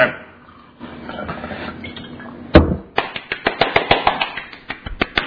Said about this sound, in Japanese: はい、こういうところから近いところまで拍手が届いております。